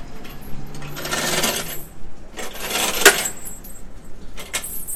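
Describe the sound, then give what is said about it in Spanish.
Metal chains of a tow truck clink and rattle in a few bright, jangling bursts as it drops off a stranded car: a longer clatter, then a sharp clank and a shorter jingle near the end, over a low steady background rumble. “Está, hay una grúa recogiendo un carro, un coche varado.”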